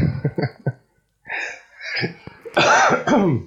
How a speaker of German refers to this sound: ja, ich bin immer noch am Husten. Naja. Das bist du krank? Nee, ich habe nur irgendwie seit mehreren Wochen Husten.